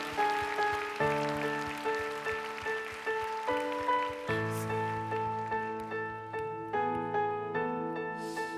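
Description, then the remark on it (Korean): An audience at a worship service applauds in thanks and praise to Jesus Christ, steadily, a dense crackling wash of clapping that carries through the whole stretch, layered over sustained keyboard chords that shift every second or so. No one speaks. “우리를 위해 십자가 지신 우리 예수 그리스도께 우리가 할 수 있는 최고의 영광과 감사의 박수 올려드립시다.”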